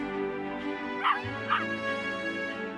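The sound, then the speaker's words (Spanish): Two sharp dog barks about half a second apart rise out of a steady background hum, with music-like tones running underneath, played from a video showing a dog. “Huevón, te ponen imágenes de cualquier otro perro.”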